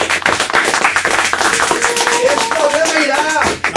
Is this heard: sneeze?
no